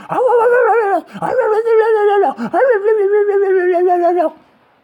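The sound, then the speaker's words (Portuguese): Street dogs bark nonstop and loud, each call drawn out into a long, whining, howl-like cry, three in quick succession with no talking; the dogs followed a person along a street and barked while he was recording audio. “Esse dia, eles vieram atrás de mim, começaram a latir, sem parar enquanto eu tava gravando, mano.”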